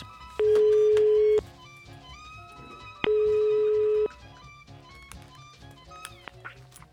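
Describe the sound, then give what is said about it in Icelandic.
A telephone rings on an outgoing call to Landsbanki, placed to reach one of the bank's current security guards: two steady, mid-pitched ringback tones, each about a second long, separated by a pause of roughly two seconds, over a faint background murmur. “Ég ringdi upp í landsbanka og fekk að heyra í einum núverandi öryggisvörðum bankans,”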